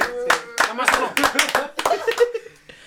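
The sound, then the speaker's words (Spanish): A short burst of steady, brisk applause, a few pairs of hands clapping in quick rhythm, mixed with laughter and voices talking over it before it fades out. “Se rifaron, La neta, un aplauso, se rifaron, se rifaron.”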